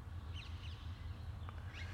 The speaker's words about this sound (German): Und da sind sie, die Sittiche. Sittiche, wie heißen die denn, die, die Vögel? Ha grüne Halsbandsittiche oder irgend sowas? Ja.